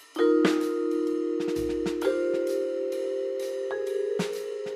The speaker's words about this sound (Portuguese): Soam na RTP os telefones de ouvintes curiosos, perplexos, exaltados, que contam a incrível história do que se está a passar na Antena 2, na rádio culta da arte que toca.